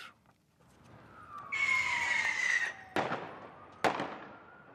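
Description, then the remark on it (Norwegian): Fireworks fired at police during a street riot by unionists in Belfast, Northern Ireland: a whistling, hissing rocket streaks upward, followed by two sharp, loud bangs about a second apart over a rumbling crowd-like background. “Fyrverkeri mot politi.”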